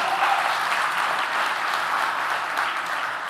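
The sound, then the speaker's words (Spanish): An audience applauds steadily in an applause to God, a dense wash of many hands clapping at an even level for several seconds with no voices on top. “¿Cuántos le ponen fe a eso y le pueden dar un aplauso a Dios en este día?”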